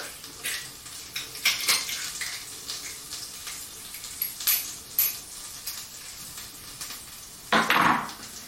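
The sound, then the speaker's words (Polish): Peeled garlic sizzles in heating butter in a pan, a steady soft hiss broken by sharp crackles and pops, with a louder scraping clatter near the end. No one speaks. “Masełko się podgrzewa, czosnek się podgrzewa, już puszcza swój czosnkowy aromacik.”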